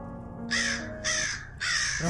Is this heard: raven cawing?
yes